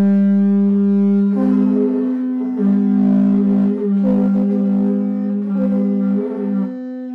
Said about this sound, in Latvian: Pirms jūs nominējat vienu asprātīgāko mīklu, lai noskan jūsu jaunās tauras.